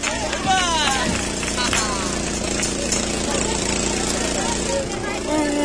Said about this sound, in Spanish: Pues no vea ruido que hace. Motor, un generador, ¿no? Sí, un generador de corriente. Pero no, no veas ruido. Bueno, ha estropeado el escape.